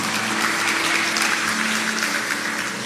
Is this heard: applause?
yes